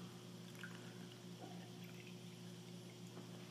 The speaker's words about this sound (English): So I have more cup than I have water, correct? Right. Okay. So that means that I have a lot of space to put more water in. I'm going to do so right now.